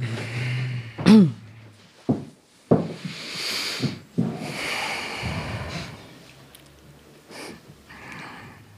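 A live audience breathes in and out deeply together, told to breathe into their feet, a soft, airy rush of many breaths, dotted with a few sharp clicks and rustles.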